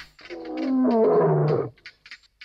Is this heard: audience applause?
no